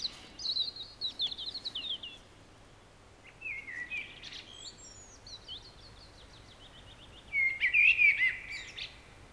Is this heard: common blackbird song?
yes